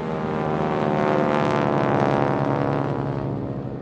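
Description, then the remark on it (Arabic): A loud German World War II propeller warplane engine roars steadily overhead, its droning harmonic growl swelling to a peak midway and then easing slightly as it passes. “مثلا خلال الحرب العالمية الثانية ألمانيا عملت طيارة بمحرك صوته عالي جدا وكان مخيف لأي مكان بتمر الطيارة من فوقه”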